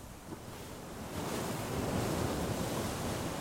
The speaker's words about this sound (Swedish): Vågorna fortsätter slå mot skrovet.